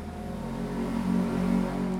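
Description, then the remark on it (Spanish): A noisy, sputtering motorbike engine drones past, its buzzing growl swelling slightly louder toward the end of the two seconds, with no voices over it. “Emprender es estar grabando el episodio de tu podcast y que pase una moto pedorra.”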